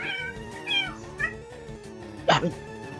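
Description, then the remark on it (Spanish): A cat meows repeatedly, drawn-out wavering cries that rise and fall, ending in a sharper, louder yowl. No one speaks over it. “Ah, pinche gato, ¿por qué estás enfadoso?”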